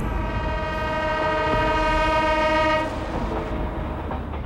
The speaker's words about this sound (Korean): 김영철을 태운 차량이 서울역 근처를 지나가고 있다. 기차 소리가 들려온다.